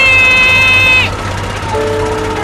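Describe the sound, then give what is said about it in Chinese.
An electric drill whines loudly at a steady, high pitch for about a second, then drops away, leaving a lower motor hum and a constant rumble underneath. “电钻所发出的声音让他的身体僵硬，无法思考。”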